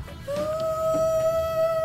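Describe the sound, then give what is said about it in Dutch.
A rock song opens with one long, sustained note that slides up slightly and then holds steady and clear over a faint low rumble, with no one talking. “En dat ligt aan het begin van het nummer.”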